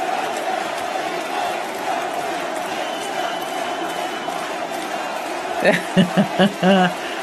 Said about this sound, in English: that's the crowd chanting Marine, President.